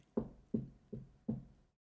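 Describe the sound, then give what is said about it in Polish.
Four soft, evenly spaced knocks on a door, each a dull wooden thud with a short ring-off, with no voices around them. “Słyszycie delikatne stukanie do drzwi.”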